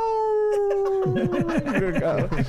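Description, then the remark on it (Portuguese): Someone imitates the dog of Fernando Henrique howling, holding one long steady note, then breaking into quick wavering yips mixed with laughter. “Cachorro do Fernando Henrique.”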